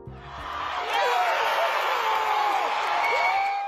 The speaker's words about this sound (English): That's the sound of fans celebrating as the Traverse City Pit Spitters win the Northwoods League Baseball Championship last week.